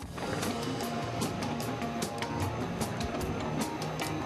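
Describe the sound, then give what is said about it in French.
Steady mechanical whirring of 3D printers at work in a Fab Lab workshop, with stepper-motor tones and regular soft ticking bursts, at moderate volume with no one speaking. “les imprimantes 3D.”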